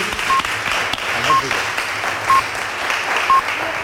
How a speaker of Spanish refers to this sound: Le damos un aplauso a nuestro cuarteto infantil.